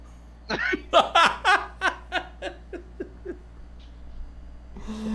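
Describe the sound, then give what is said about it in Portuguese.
A person imitates an angry horse with a loud, shaky whinny: a burst of about ten rapid, pulsing cries that start strong and high, then fade and slow, ending in a brief rustle. “um cavalo bravo.”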